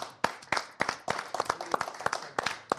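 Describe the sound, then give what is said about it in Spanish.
A small group applauds the whole team with sharp handclaps that overlap in an uneven patter for a few seconds. There is no talking. “La pues verdad, aplausos a todo el equipo.”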